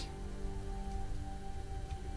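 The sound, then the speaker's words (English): A steady wash of rain spitting against a window pane on a cold morning, a continuous soft hiss with scattered light taps and a faint low hum underneath, no voices. “On a cold morning. Rain spitting against the window.”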